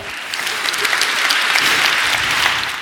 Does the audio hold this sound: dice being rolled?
no